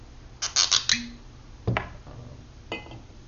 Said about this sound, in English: Before that, um, I'm gonna pour myself a glass of apple cider